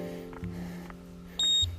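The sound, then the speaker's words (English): A single short, fairly loud electronic beep sounds near the end as a device is turned off, over a steady low mechanical hum that runs throughout, with a few faint clicks before it. “That won't beep anymore.”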